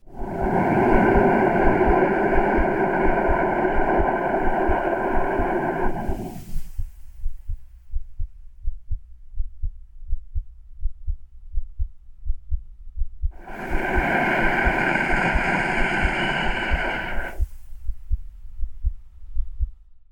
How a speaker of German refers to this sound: Die Geräusche, die ihr gerade gehört habt, sind Geräusche, die wir eigentlich tagtäglich auch vor uns gehen. Es sind Atmungen, Herzschläge und Geräusche aus der Magengrube.